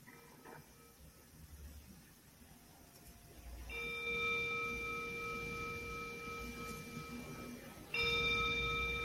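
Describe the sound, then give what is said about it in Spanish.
A meditation bell is struck and rings out with a clear, sustained shimmering tone that lingers for several seconds, then is struck again, louder, near the end. No one speaks. “Y voy a tocar una campana, simplemente dejando que tu atención descanse en este, este sonido.”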